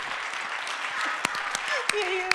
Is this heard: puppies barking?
no